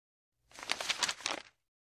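Paper rustles and crinkles for about a second as another sheet of paper is picked up after a grade has been written on one; a soft, papery scrape with no voices around it.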